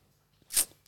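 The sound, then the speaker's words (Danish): A single brief, hissy burst of noise from a dog under the table, one of two dogs running around there, over in a fraction of a second with no talking. “Det var en hund igen.”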